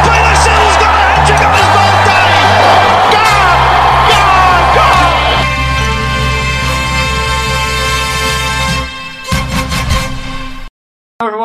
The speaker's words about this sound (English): Crowd cheers. Here's Siddle. He's got him. He's got him.